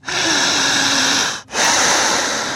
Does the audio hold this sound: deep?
yes